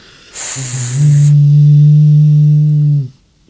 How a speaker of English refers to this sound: a foghorn. That'll do. Oh, something, something like that, isn't it? Something like that.